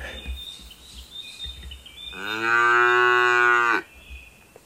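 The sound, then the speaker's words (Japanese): A single long, loud cow moo, rich and steady for about a second and a half, rises out of a quiet outdoor background where faint birds chirp high above. “最後に、牛で。”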